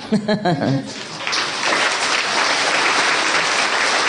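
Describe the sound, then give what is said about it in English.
A brief burst of voices gives way to steady audience applause, a dense crackle of many hands clapping that stays loud and even for several seconds. “We clap anew.”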